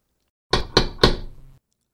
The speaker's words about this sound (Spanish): hasta que escucha la puerta.